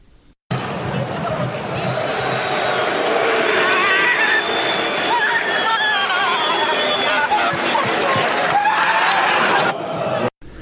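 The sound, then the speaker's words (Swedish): A football player, after receiving a red card in a match against Örebro, throws himself off the pitch into the players' tunnel and lets out a long, raw primal scream that stays loud and harsh for about ten seconds, its pitch wavering and straining, then cuts off abruptly. “Samtidigt som han primal, primalgastar mm. ut sin ångest.”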